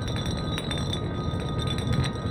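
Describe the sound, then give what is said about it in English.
A glass bottle spins on a hard surface and slowly comes to a stop, giving off a steady droning hum with a high ringing tone and quick, regular rattling clinks, continuous throughout. “The bottle slowly crawled to a stop.”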